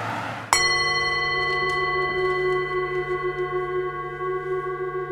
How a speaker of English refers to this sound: I scored almost the entire short with gongs. Just gongs. Little piano, but mostly gongs.